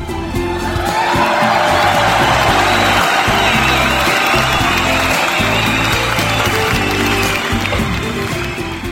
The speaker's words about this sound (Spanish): Agradezco también enormemente a todo el equipo de producción radiofónica de aquí de Cucú TV que hace posible la realización de este programa, para ellos también, para todos, todos, todos, todos ellos, fuerte, pero fuerte el aplauso.